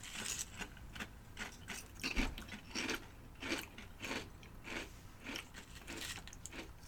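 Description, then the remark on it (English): Repeated crunching of crisp snack chips being tasted, with sharp bursts of chewing arriving in an irregular rhythm roughly every half second, fairly quiet overall and with no talking. “It has a distinctive crunch, signature taste.”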